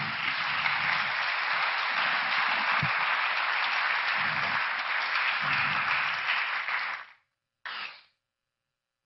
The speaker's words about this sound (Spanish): Démosle palmas al rey, hermano.